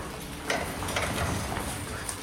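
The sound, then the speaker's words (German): A small wooden door leading out onto a metal-tiled roof is opened, with a few soft clicks and scraping rattles over a steady, hissy background, fairly quiet. “Max öffnet die Tür und wir sind draußen.”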